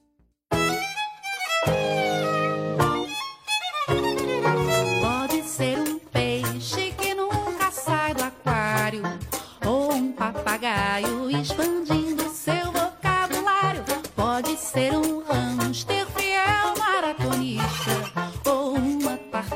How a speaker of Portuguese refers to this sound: Vamos começar este programa escutando uma música bem legal.